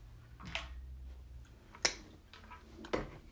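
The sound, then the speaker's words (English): Someone sips water: three short, clicky gulping sounds spaced roughly a second apart, moderately loud against a quiet low hum, with no talking. “And you know it wouldn't be a podcast if I didn't take my sip of water.”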